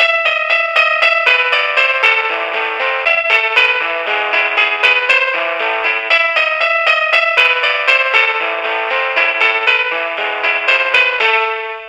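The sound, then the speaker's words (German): An electronic device's selectable ringtone melody plays a rapid run of bright, buzzy synthesized notes at a steady, loud level for about twelve seconds, with no voices, as the device's ringtones are tried out. “Zweite Taste ist, um die Klingelmelodie auszuwählen.”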